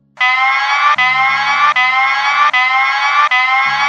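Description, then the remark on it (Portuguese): A loud electronic alarm blares in steady repeating pulses, about five even cycles with brief dips between them, unbroken, with no voices over it. “não, é, alarme, alarme.”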